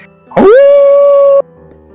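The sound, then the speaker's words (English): A single hound's howl from off in a forest rises sharply in pitch and then holds one steady, clear tone for about a second before cutting off abruptly. It is loud and prominent, with no talking. “is cut out by the howling”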